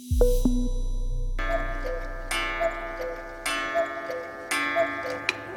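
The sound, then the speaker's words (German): A cuckoo clock ticks steadily in a slow, even rhythm, about once per second, with a brief ringing tone at the start. No one speaks. “Nicht nur Kuckucksuhren, alle Uhren werden an diesem Wochenende umgestellt, nicht in Mexiko, aber in Deutschland.”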